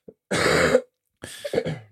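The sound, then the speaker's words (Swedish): Two harsh, loud coughs from a very sick person, separated by a short pause, the second rougher and trailing off into a throaty rasp. No talking. “Jag ber om ursäkt, jag är jättesjuk så jag eh, hostar som en dåre här.”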